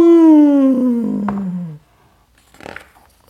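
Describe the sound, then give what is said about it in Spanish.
A person imitates a female bear's deep, low growl, like an "Ah!", with one loud, drawn-out vocal roar that slides lower in pitch for almost two seconds, then falls silent before a short breathy exhale. “Pero la osa simplemente la miró, abrió la boca y emitió un gruñido grave y profundo, así como un ¡Ah!”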